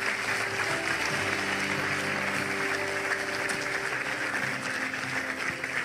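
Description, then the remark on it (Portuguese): A church audience applauds people who have just decided to follow Jesus, a dense, steady wash of clapping that holds for about six seconds, with soft sustained musical tones humming underneath and no voices. “Vamos aplaudir as pessoas que tomaram esta decisão agora mesmo.”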